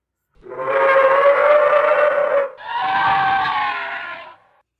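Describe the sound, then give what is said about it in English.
A Deinonychus lets out a loud, drawn-out screeching cry of challenge, then a second slightly shorter shriek right after it, harsh and harmonic, alone with no talking. “Tobias stood up, and he screeched a loud cry of challenge.”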